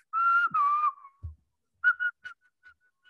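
A person whistles a short tune, with two long sliding notes followed by a pause and then several brief, choppy chirps. There is no talking.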